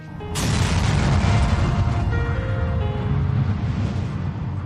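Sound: huge explosion boom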